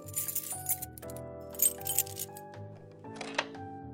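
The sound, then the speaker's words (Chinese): Keys jangle in a few short, bright metallic bursts as they are taken out of a drawer in a study, over a steady bed of soft, sustained music, with no voices. “刘姨在厨房里将丰盛的早餐准备好之后，走到了张云浩的书房，从抽屉里拿出了钥匙，然后走到了那个房间。”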